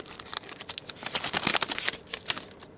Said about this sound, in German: Im Institut für Pflanzengenomik im spanischen Valencia reißt der Wissenschaftler Antonio Graney eine kleine Tüte aus braunem Papier auf und schüttet daraus Saatgut in seine Hand.